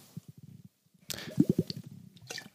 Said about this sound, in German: Entschuldigung, ich muss jetzt wirklich mal kurz einen Schluck Wasser trinken.